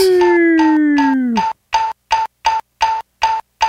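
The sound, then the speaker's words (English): A doorbell rung over and over: a sliding, fading chime gives way to a rapid, evenly spaced string of about eight loud, buzzy rings, with no one speaking. “You got to put some sort of limiter on that doorbell, you know, where you only can ring it like five times.”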